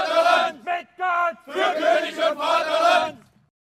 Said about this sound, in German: Tja, so klingt es, wenn erwachsene Männer Krieg nachspielen. Das war ein Ausschnitt aus einem sogenannten Reenactment der Völkerschlacht zu Leipzig.